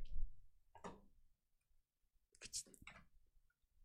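A handful of soft, dry computer mouse clicks at irregular intervals, a couple landing close together, made while editing and zooming into a portrait photo in Luminar photo editing software, against a quiet background.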